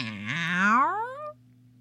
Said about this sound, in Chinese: 飞猫。一口咬住了降落在他身边的小鸟， 喵！